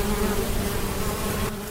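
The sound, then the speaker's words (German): A steady, dense buzzing of many bees at an organic apiary fills the air, a continuous droning hum with no voices, easing slightly toward the end. “Wenn man unter einem Apfelbaum sitzt in Blüte und, und es summt und brummt, ähm, das ist ein total schönes Gefühl.”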